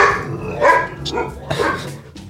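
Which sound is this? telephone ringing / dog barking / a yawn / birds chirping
dog barking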